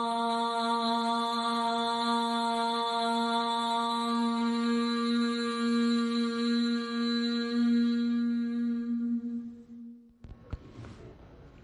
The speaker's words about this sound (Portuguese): Esse som que você ouviu no final, OM, né, é um som que se, uh, se faz sempre no yoga. Né? Não vou explicar a origem agora, mas no yoga tem.